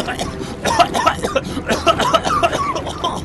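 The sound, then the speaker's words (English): A voice imitates the coughing of a woman drowning in a pool: a run of wet, sputtering, gurgling coughs and gasps in quick irregular bursts, fairly loud, as she struggles and takes in water. “Mandy is still struggling. She's just taking in a lot. She's coughing.”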